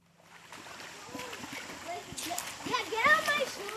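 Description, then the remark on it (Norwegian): Water splashes and sloshes steadily at an outdoor pool in the USA (Palisades pool) on a sleepy Friday afternoon at 29 °C, with children playing basketball in the water, calling and chattering, and a couple of adults swimming laps; the splashing grows busier and louder toward the end. “Det er en søvnig fredag ettermiddag i Palisades pool. Noen unger spiller basket i vannet.”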